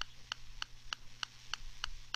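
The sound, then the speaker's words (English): A steady, even ticking repeats about three times per second during a phone setup with TalkBack, not coming from the phone itself; each tick a crisp, bright click over a faint low hum. There is no talking, and the ticks stay fairly quiet. “That ticking sound isn't part of his phone either.”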